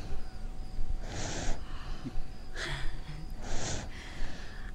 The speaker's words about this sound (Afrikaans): Hy snork so vreemd so aan 'n af. Kyk net hoe lê op jou bors asof hy in die veiligste plek in die wêreld is.